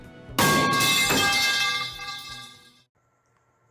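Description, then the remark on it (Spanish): A metal horse's horseshoe is dropped onto a hard floor, hitting with a loud clang, bouncing once more, then ringing brightly and fading over a couple of seconds. Another sharp hit begins just as it ends. “creo que hoy le vamos a dejar caer la herradura de caballo.”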